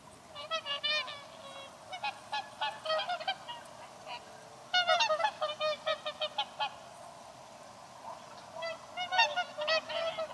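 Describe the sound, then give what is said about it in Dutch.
Whooper swans call repeatedly in bursts of loud, bugling honks, several birds overlapping in quick sequences with short pauses between, heard clearly with no talking; a recording from the Xeno-canto website. “Maar dankzij de website Xenocanto kunnen we hun goddelijke geluid toch even laten horen.”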